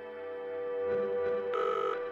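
A steady electronic ringback tone purrs over a telephone line during an outgoing call at 01:57, holding a sustained pitch with a brighter burst near the end, moderately loud and alone with no voices.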